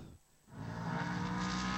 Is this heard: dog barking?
no